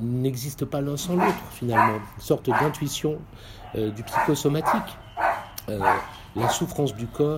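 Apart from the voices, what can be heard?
dog barking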